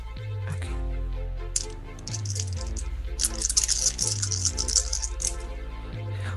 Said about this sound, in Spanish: Entonces son eh, dos de cerebro, dos de percepción, pero como es un favorito, puedes tirar un dado más, serían cinco dos dados.